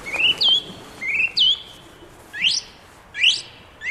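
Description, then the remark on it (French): Bird calls from an electronic hunting lure used to attract migrating thrushes: five sharp, whistled chirps repeating at a steady, mechanical pace, clear, with no voices over them. “Ces petits objets très sophistiqués peuvent reproduire des dizaines de sons d'oiseaux.”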